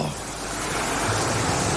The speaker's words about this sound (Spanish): Con sonido de olas del mar, y que nos hace retroceder a...